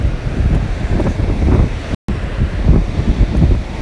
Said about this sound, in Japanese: 聞こえるでしょうかえー、っと波の音が聞こえると思うんですけども、えー、今ですね、え江ノ島の、え海岸に海岸海辺に来てます